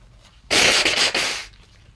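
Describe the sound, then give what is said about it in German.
A person with a cold blows their nose once, a loud, breathy honk lasting about a second with a couple of fluttering pulses, then quiet. “oh, jetzt muss ich mal kurz die Nase putzen.”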